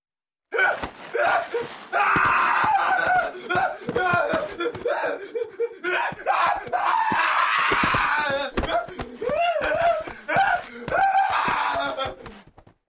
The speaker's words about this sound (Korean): 그와 동시에 남작이 끔찍한 비명을 질렀다.